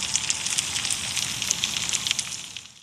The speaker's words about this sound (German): Was hört man da jetzt? Jetzt hört man, dass im Boden eigentlich viel zu hören ist.